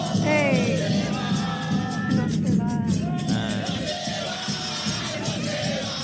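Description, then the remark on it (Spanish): A crowd chants a rhythmic farewell cheer (a porra) in unison, the chant used to send someone off, many voices loud and steady throughout, with shouted whoops rising above the dense, continuous group chant. “Oye, y tenemos hasta la porra con la que lo despidieron aquí.”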